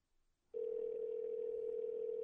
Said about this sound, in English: Ring, ring, ring. Ring, ring. Nobody answers her phone.